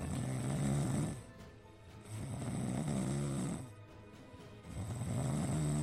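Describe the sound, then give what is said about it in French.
Loud, rasping snores repeat in a slow, steady rhythm, about three drawn-out breaths, over the constant hum of an airplane cabin, as a football team's physio staff sleep on the return flight to Rennes. No one speaks. “Le kiné habitués à jouer aux cartes lors des déplacements, ronflent carrément dans la carlingue.”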